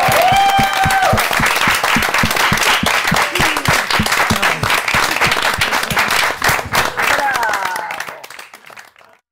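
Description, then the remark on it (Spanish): Loud, dense applause with rapid overlapping claps and excited voices cheering over it, sustained for several seconds before tapering off and fading near the end. “¡Aplausos! ¡Bravo!”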